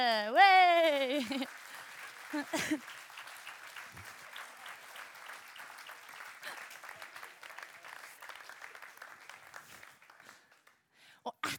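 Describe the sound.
A crowd breaks into steady applause for the actors who performed the story of the Good Samaritan, many hands clapping in a dense, crackling wash that fades out toward the end, following a brief rising voiced tone and a couple of shouts at the start.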